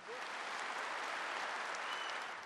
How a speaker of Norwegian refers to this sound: Vi kjenner dette så altfor godt, sier president Recep Tayyip Erdogan, til full applaus på hjemmebane.